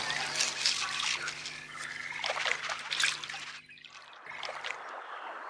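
Water trickles and drips in a steady, splashy patter as a fly shakes water droplets off itself, pausing briefly before the dribbling resumes. No voices are heard.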